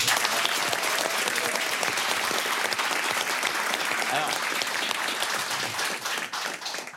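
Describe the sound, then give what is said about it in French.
A studio audience applauds a guest's mother steadily, a dense wash of many hands clapping at a constant loud level for several seconds before beginning to thin out toward the end. “Et eh ben voilà, on applaudit sa maman.”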